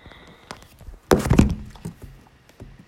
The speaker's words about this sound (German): Kannst du mal mit deinen Nägeln auf normal auf dein Handy drücken. Auch so die ganze Zeit. Ich liebe dieses Gefühl. Oh mein Gott, nein. Ach, ich kann es auch anders, aber also ich kann es auch so machen, aber ich finde das Geräusch einfach gut.